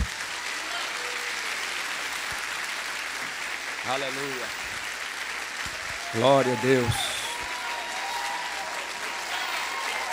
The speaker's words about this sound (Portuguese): Uma salva de palmas para esse povo.